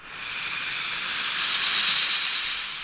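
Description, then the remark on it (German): A steam iron hisses steadily and fairly loudly for a few seconds in the ironing room of an ironing service on Ingolstädter Straße, a continuous airy rush of steam with a faint rubbing texture and no voices. “Es dampft und zischt im Bügelzimmer.”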